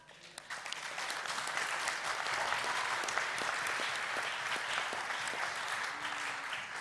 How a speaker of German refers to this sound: Leitet, das sollte man Jesus einen Applaus geben, oder?